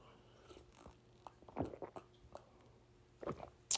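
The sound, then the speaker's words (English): Quiet sips of water: a few short, wet slurping and swallowing sounds spaced irregularly, with soft mouth clicks in between and no talking. “That first sip feeling.”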